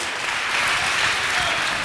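An audience claps steadily for about two seconds, a dense, even wash of many hands with no pauses and no voices.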